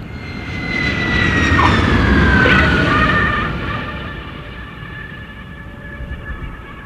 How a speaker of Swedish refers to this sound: Planet gör en rutinmässig landning. Inget skum har sprutats på landningsbanan. Landningsställen fungerar perfekt.